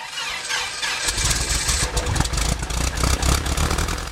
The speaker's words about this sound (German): Der Flieger hat lange gestanden. Jetzt hoffen alle, dass der Motor anspringt.